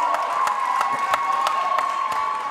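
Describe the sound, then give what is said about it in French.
An audience, including the Bac Kineduc group, applauds and cheers itself steadily in a hall, with dense clapping, a sustained whistle and scattered whoops rising above the roar of the crowd. “Ben oui, applaudissez-vous.”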